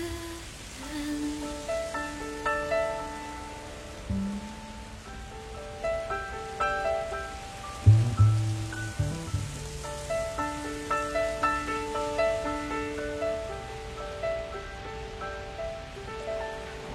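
A steady, even hiss of falling rain fills the whole clip, with a gentle melody of sustained, ringing notes playing over it at a moderate volume. No one speaks.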